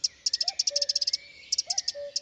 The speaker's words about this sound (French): Un minuscule oiseau, le troglodyte mignon, perché sur un rameau, chante aussi. Mais bien vite, il commence à alarmer avec insistance.